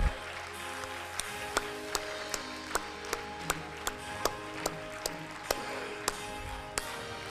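audience clapping hands

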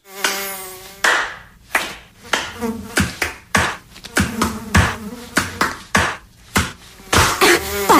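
mosquito buzzing

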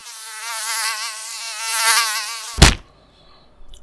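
fly buzzing

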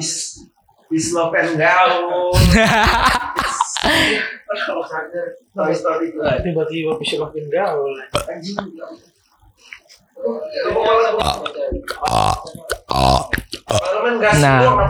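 burping

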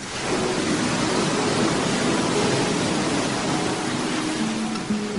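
ocean waves surf

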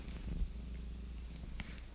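domestic cat purring

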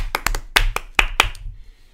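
applause

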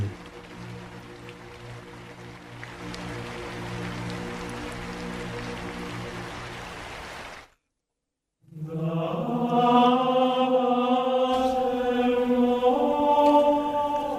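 storm rain

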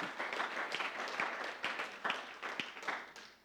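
audience clapping

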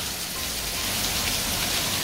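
rain falling

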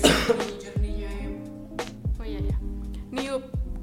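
cough

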